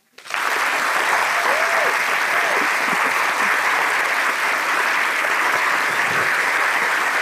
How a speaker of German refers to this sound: Mach mal den Applaus, bitte. Sollen wir ihn machen? Ja. Okay, könnten bitte einmal alle Zuschauerinnen in diesem Saal sehr laut klatschen?